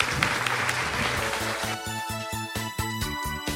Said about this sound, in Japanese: 大きな拍手でお送りください